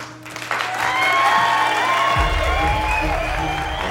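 An audience breaks into sustained applause mixed with cheering and a few whoops, the dense clapping swelling quickly and holding steady at a loud level.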